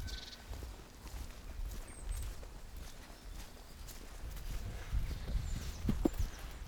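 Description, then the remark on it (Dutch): Uneven footsteps crunch and thud over rough ground as someone carefully walks down a fairly steep slope into the Witte Wieverkuil pit, with faint outdoor ambience and no voices. “Zullen we even naar, eh, naar beneden lopen? Ja, nou, het is vrij stijl dus.”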